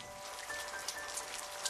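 Steady, dense rainfall from a rain-sound smartphone app, heard through headphones, hisses on without a break. It is a soft, even wash of drops with a few brighter patters poking through. No voices.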